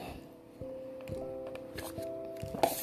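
Someone drinks water, with a series of soft gulps and small wet clicks spaced through a quiet stretch over a faint steady hum; no one talks.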